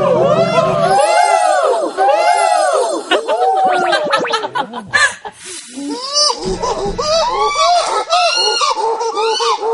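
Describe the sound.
A person imitates a chimpanzee pant-hoot: a rapid run of loud hooting breaths that climbs into shrill, honking screams, repeating in a continuous burst.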